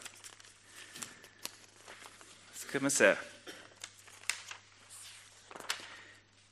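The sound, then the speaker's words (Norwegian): Papers rustle and shuffle in several crinkly bursts, loudest around the middle, as a man looks for his papers and speaks briefly and quietly over the handling noise. “Skal vi se, Nå har jeg eh, kanskje lagt ifra meg eh, litt av papirene mine her. Eller så har jeg de her.”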